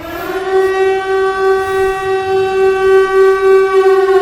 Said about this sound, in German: also, das war jetzt Spoilerwarnung, Sirene, obligatorisch.